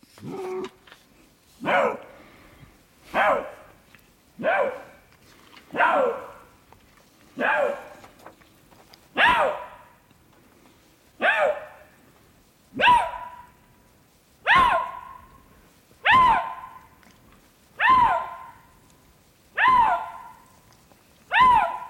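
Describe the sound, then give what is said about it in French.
A Eurasian lynx in the Jura gives a steady series of about thirteen hoarse, dog-like barks, evenly spaced roughly every second and a half, loud, with no voices. “Donc ça, c'est un lynx.”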